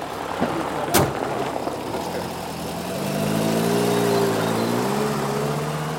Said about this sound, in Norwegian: Men det er det som skjer idet du ser den lille turkise bussen rulle over brostenen ned Kogelsåsevei.